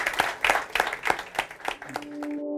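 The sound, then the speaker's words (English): Audience applause for Dr. Dominic D'Agostino at the end of a talk on the FX Medicine Live stage at the 6th Bioceuticals Research Symposium in Melbourne, a steady burst of clapping with a fairly even rhythm, fading as a sustained musical tone comes in at the end. “Could I please ask everybody to give Dr. Dominic D'Agostino a rousing applause?”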